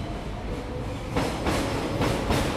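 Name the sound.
train arriving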